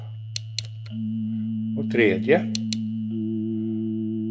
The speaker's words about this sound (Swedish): Här kommer då alltså en ensam sinuston istället för röstkällans praktfulla samling utav sinustoner.